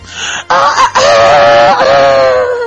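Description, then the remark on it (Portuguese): A person loudly imitates a rooster crowing, with two short clipped notes followed by a long, drawn-out wavering call that slowly falls in pitch, alone. “De repente, lá do fundo, parece um, um galo cantando assim.”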